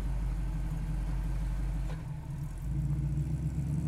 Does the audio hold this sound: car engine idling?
yes